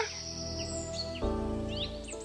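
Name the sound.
bird calls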